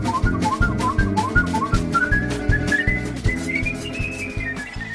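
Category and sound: human body sound, human whistling a melody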